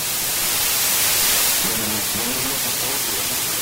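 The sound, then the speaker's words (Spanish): Loud, steady hiss of static crackles across a phone line during a call to a radio station, with a faint, distant voice barely surfacing beneath the strong interference partway through. “Hay una fuerte interferencia, está muy al fondo la voz.”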